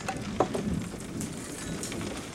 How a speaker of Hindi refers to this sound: घड़ी की टिक टिक और खाली क्लिनिक में बारिश का शोर साफ सुनाई दे रहा था